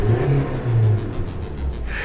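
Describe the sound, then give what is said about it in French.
A tuned-up Civic compact car engine revs loudly for about two seconds, its low rumbling drone rising and falling in pitch with a raspy, buzzing exhaust edge. No one speaks. “Les oiseaux ont peut-être survécu à l'ère des dinosaures, mais ils n'auront pas survécu à l'ère des civiques montés.”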